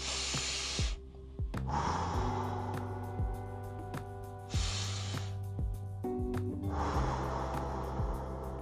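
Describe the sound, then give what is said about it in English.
Slow, deep controlled breaths drawn in and pushed out, four long airy strokes in a steady rhythm, clear over a soft sustained musical drone. “when you control your breath and you continuously do this”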